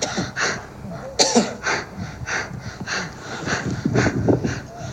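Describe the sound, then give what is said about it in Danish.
Strained, heavy breathing of a man on the summit of Mount Everest a few years ago: a steady run of loud, rasping breaths in and out, about eight in a few seconds, with a sharper gasp near the start and no talking. “Det vi hører er en, øh, en presset mand. Det er jo på, øh, på toppen af Mount Everest for et par år siden.”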